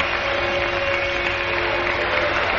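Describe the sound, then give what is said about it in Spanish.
A crowd at a public political gathering cheering and booing at once, indigenous people cheering in the front rows and the bourgeois booing at the back, a dense, steady roar of many voices with applause-like texture and a faint sustained hum running underneath throughout. “Los indios vitorean en las primeras filas y los burgueses abuchean al fondo.”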